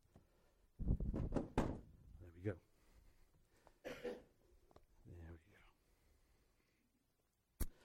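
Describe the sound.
A chair is shifted back into place with a cluster of heavy knocks and bumps near the start, then a single sharp clack at the end. Soft murmured voices fill the gap between.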